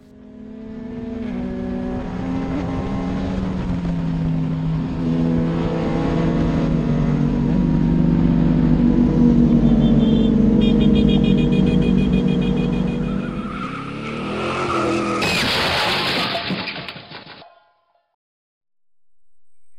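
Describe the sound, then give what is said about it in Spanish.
A car engine roars and climbs in pitch as it speeds up without slowing for a curve, then tires screech and a sharp, loud crash hits before everything cuts to sudden silence. “cuando de repente, quien iba adelante, por no bajar la velocidad en una curva, se estrelló.”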